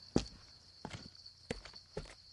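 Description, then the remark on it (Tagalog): Four soft, deliberate footsteps of someone stepping carefully so as to make no noise that would wake anyone, land at a slow, uneven pace, each a brief muffled thud against a faint steady hiss in an otherwise quiet space. “Maingat ang bawat takbang ko para hindi makagawa ng anumang ingay na gigising sa kahit sino.”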